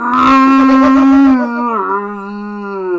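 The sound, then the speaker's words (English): A voice imitates a man loudly vomiting into his toilet with a harsh, rasping, moose-like groan that starts gravelly and strained, then trails into a long, wavering moan, loud, with no other sounds. “Sounds like a dying moose. I swear to you. Him puking in his toilet.”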